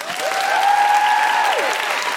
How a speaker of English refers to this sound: A big round of applause to Carys Afoko,